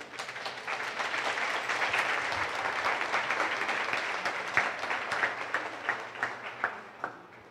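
A crowd applauds steadily in a dense wash of many clapping hands, then thins toward the end into fewer, distinct individual claps. No one speaks.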